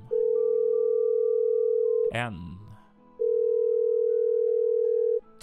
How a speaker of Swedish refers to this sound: du ringer och du hör mm. en eh, signalen går fram.